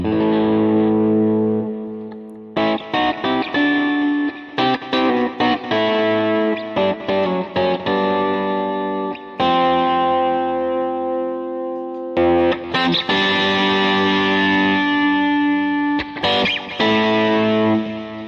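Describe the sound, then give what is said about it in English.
An electric guitar with an out-of-phase pickup setting plays chords and short riffs, its thin, nasal, hollow tone strummed in bursts with brief pauses, loud and without any talking. “Oh yeah, that's the out of phase.”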